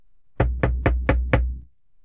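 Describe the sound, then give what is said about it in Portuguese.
Five firm knocks on a wooden bedroom door, evenly spaced in a quick steady rhythm, fairly loud with a hollow resonant thud after each. “Logo, Billy escuta uma batida na porta de seu quarto.”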